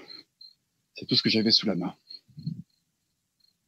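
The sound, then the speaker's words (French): Cicadas chirp in thin, high, pulsing bursts that come and go throughout, fairly faint in the background while a man speaks briefly over them. “Vous entendez les, vous, entendez les cigales là Un petit peu.”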